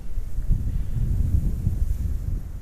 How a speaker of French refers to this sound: Les croix témoignent de la dureté de la vie, là où le fleuve Saint-Laurent s'ouvre pour devenir un golfe sous le souffle constant du vent qui balaye dunes et plages de sable sans fin.